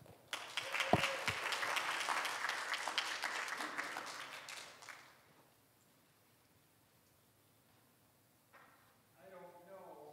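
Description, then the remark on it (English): A crowd bursts into dense, loud applause for a man coming up to speak, rolling on for about five seconds before quickly dying away, leaving a quiet pause until a man begins speaking near the end. “So let's go ahead and put our hands together”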